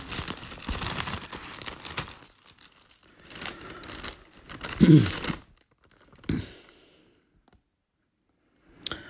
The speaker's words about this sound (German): Und dann blättern wir noch zum Römerbrief, Römer 10.